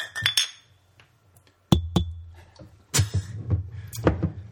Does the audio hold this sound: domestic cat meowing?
no